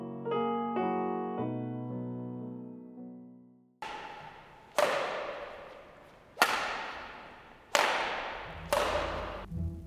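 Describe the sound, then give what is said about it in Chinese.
After a brief tonal musical phrase, a badminton shuttlecock is struck five times at an uneven pace, each hit a loud, sharp crack followed by a quickly fading ring. No one speaks. “这个就是羽毛球的声音哦，The badminton。”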